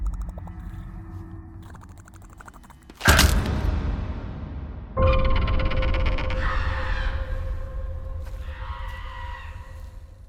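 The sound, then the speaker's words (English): Harsh, raspy bird calls in a film clip rise over a low rumbling soundtrack, arriving in loud bursts after a sudden crash, then continuing in rough, overlapping cries that fade slightly toward the end. “what's up with all the birds?”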